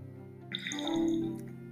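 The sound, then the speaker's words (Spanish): A mobile phone notification sounds, a short, bright, bubbly chime of a few quick tonal blips that rise and ring out briefly over a steady low background hum, with no talking. “Eso fue mi teléfono, disculpen.”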